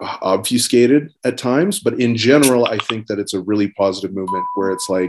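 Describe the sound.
A single soft phone notification chime rings out near the end, a steady pure tone sitting beneath a person's continuous, animated talking.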